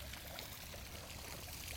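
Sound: flowing water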